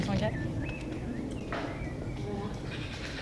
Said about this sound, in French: Voilà, des oiseaux, on peut les entendre un peu et aussi les avions.